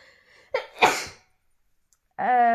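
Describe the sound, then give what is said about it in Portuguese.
A single loud sneeze from a woman with a sharp intake and explosive burst, followed by a moment of silence before a voice starts speaking. “Acho que vou espirrar.”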